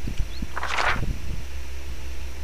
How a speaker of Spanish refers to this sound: Ahí se escucha donde se cambia la, hoja.